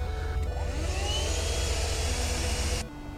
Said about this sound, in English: if you want a compact and pretty powerful 12 volt vacuum cleaner, and yes, it has a cord